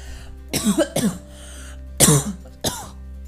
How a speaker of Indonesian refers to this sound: maaf maaf guys maaf guys batuk guys ini bebean makan kerupuk udang nih guys seret-seret nih nggak minum air gini gitu dah jadinya